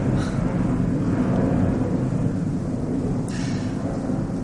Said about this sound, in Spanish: Estamos cerca de la estación de Barajas, aquí en la Comunidad de Madrid. Y nos ha pillado el avión de las 11 menos cuarto. Disculpa si lo estás escuchando.